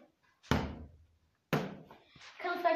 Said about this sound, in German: Ähm, ja, keine Ahnung, ich box einfach mal gegen den Boxer. Vielleicht hört ihr das. Ich nehme euch mal mit Mikro mit.